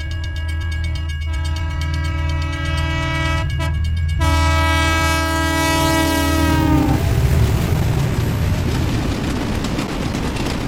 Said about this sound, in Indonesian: … pengen ngajakin ente-ente semuanya nih teman Nusantara untuk naik kereta api. Tut, tut, tut.